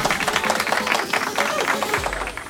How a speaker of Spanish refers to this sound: Tremenda donación. Aplauso, por favor, aplauso.